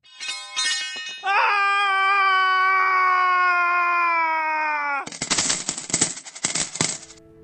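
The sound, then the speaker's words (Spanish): At a building renovation site, a man lets out a short cry, then a loud, sustained scream of fright lasting several seconds and sliding slightly downward, followed by harsh, clattering bursts of noise. “Los obreros, sorprendidos por el grito, corrieron hacia el lugar”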